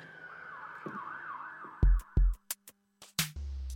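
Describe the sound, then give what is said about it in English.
A wailing emergency siren rises and falls outside on a residential street for a couple of seconds, then fades under several loud thumps and bumps. “I know the sirens are going off right now, but like, like generally, it's like a lot more quiet here on the street right here where I live.”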